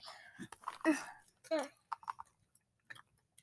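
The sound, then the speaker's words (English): Chewing of a sticky, chewy snack topped with powdered sugar: wet, irregular mouth smacks and squelches, a couple of soft hums mixed in, then a run of quick, quieter clicks as the chewing slows. “hmm There's not much taste when you first chew it, but then like after when you're about to swallow it, there's a bunch of taste.”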